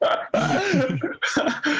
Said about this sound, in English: sorry, bro. I don't have corona, don't worry. Um so I Hey, think, don't be coughing on me. Oh, sorry, bro.